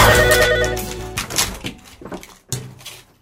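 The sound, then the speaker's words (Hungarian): A telephone rings loudly at first with a dense, buzzing tone, then fades into a few softer clicks and knocks, like the handset being fumbled. “Ez ébresztő? Ah, telefon.”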